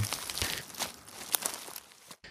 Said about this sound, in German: Langsam und stumm bahnten sie sich ihren Weg durch das Unterholz. Das Einzige, was zu hören war, war das Rascheln und Knacken des Laubes und der Äste unter den Sohlen ihrer Stiefel.